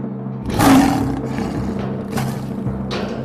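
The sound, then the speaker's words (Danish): A lion roars loudly, a deep rumbling growl that swells at the start and trails off into lower grunting rumbles over a few seconds, with no one speaking. “Lige ved siden af løven.”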